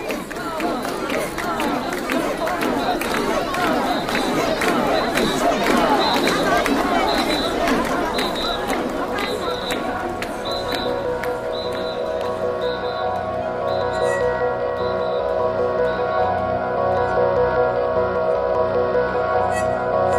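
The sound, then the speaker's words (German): A dense, noisy festival crowd carrying portable shrines through the streets around Tokyo's oldest temple, many overlapping voices and shouts, steady throughout, with a regular high whistle-like tone pulsing above the din during the first half. “Eng aneinander gepresst schwitzen sie unter den tragbaren Schreinen, die sie einen Tag lang durch die Straßen um den ältesten Tempel Tokios schleppen”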